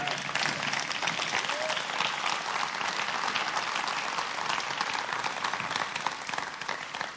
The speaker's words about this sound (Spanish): Merece un aplauso también, ¿verdad?